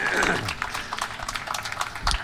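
A crowd at a live concert on the stage at Piazza Vittorio claps for a band in a steady, dense patter of many overlapping hand claps, moderately loud and continuous for a couple of seconds, with a faint voice briefly mixed in near the start.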